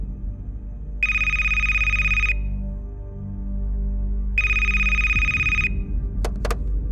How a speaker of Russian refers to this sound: Ночью телефон зазвонил снова.